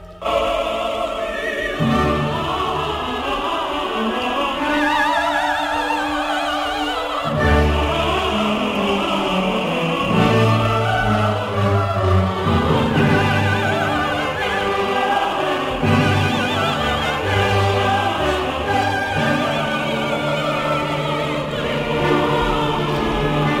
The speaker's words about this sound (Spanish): Y como es una gran obra, también termina con una especie de gran fuga que es este amén.